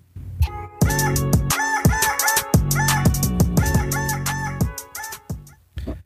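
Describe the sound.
A voice imitates a rooster's crow through heavy autotune as a farewell sign-off, the cock-a-doodle-doo turned into stepped, robotic musical notes over a loud, punchy rhythmic backing for several seconds.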